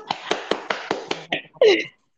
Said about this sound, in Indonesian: wow luar biasa tepuk tangan dulu dong